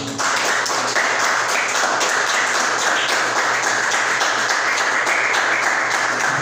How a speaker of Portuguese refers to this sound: Louva o Senhor com as palmas, igreja.